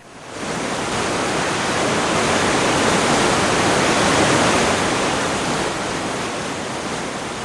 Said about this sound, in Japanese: この月遠くまで轟く巨大な音が響きたくさんの流氷が川の流れに巻き込まれてすべてを押し流す勢いは東へ流れていきます広々とした川面には様々な流氷が浮かび大きなものは小舟のように小さなものは車輪のように